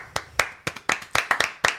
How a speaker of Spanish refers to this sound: Pero se la llevó quien se la tenía que llevar, que fue Parasite. Chicos, aplausos.